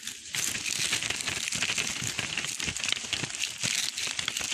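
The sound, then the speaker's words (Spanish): Dry leaves crunch and crackle as someone walks a trail on foot through them, a dense, steady rustle of brittle crackles with no clear pauses and no voices. “Al terminar, siguió un sendero a pie, donde alrededor todo eran hojas secas y más pájaros.”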